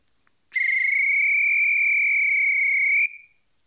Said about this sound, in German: Schöne Trillerpfeife aus Holz.